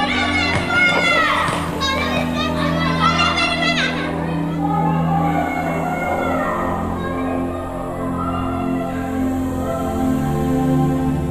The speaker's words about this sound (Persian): تو این خونه ها صدای کودکان و خنده های زیباشون به گوش میرسه